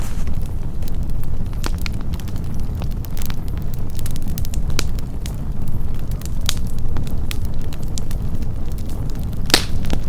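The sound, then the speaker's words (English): A large city fire of June 1914, started at a leather company and spreading across the city for 13 hours, roars steadily with a deep, rumbling low end, peppered throughout by sharp crackles and pops, some louder snaps standing out. Loud, with no voices. “The fire started at Korn Leather Company and spread across the city for 13 hours, leaving thousands of people homeless and lost.”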